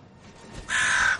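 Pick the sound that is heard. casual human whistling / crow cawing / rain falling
crow cawing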